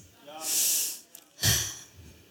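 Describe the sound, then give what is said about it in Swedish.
A deep, audible breath drawn in with a long airy hiss, followed after a brief pause by a fuller, rushing exhale, fairly loud, with no talking. “Ta inte för djupa andetag.”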